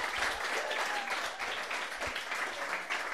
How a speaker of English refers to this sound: Uh, where's your clapping?